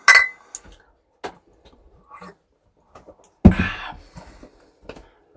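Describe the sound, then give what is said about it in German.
Glasses clink together in a toast: a bright ring at the start, a few light taps, then a louder, fuller clink midway with some rustling after. “Prost. Prost.”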